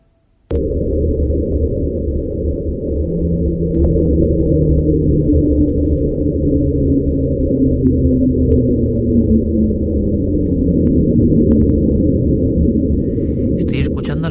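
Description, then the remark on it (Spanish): A muffled underwater hydrophone recording from Antarctica, made in 1997: steady low rumbling noise throughout, with faint tonal sounds that slowly glide downward in pitch over several seconds, heard alone without any voices. “Le ponen este nombre, como podríamos traducir, reducir la velocidad o porque hay un descenso en la frecuencia y entonces lo llaman así. Viene de la Antártida y si quieres lo escuchamos”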